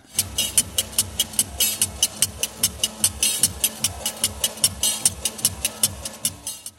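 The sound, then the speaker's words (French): Large metal scissors clack rapidly and rhythmically, a steady run of sharp, bright clicks, fairly loud, as a country-market vendor of a traditional nougat-like candy made with rice or other cereals snaps his shears, over a faint market murmur. “Ce bruit vif de cliquetis de ciseaux provient d'un vendeur de yachts que l'on trouve dans tous les marchés de campagne.”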